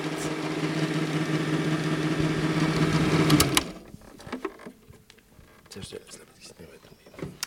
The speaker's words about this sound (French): Le bruit mythique du projecteur Super 8.